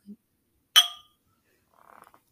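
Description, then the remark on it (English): A single bright clink of wine glasses holding Riesling white wine, touching in a toast, fairly loud, with a short ringing decay, followed by a few soft faint clicks. “Cheers to a good episode.”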